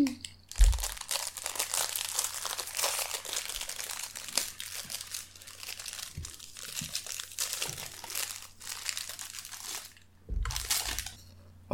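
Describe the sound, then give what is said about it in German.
Crinkling of a plastic wrapper being torn open, with dense rustling bursts and a few sharp crunchy cracks as a fortune cookie is unwrapped and broken apart; no voices. “Und dann würde ich sagen, ich öffne den Feldcookie.”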